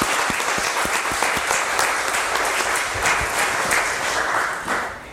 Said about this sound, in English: Let's just give a round of applause for these families who are doing a, making a difference.